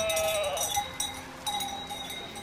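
Sheep bleat while bells on the flock clank and ring steadily, a busy pastoral jangle with no voices, from a flock grazing in a nearby sheepfold at sunset.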